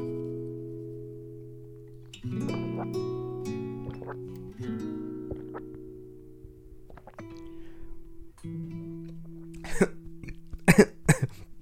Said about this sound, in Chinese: 哎呦，打嗝录进去是是非常的、非常的不 ASMR 的一个行为。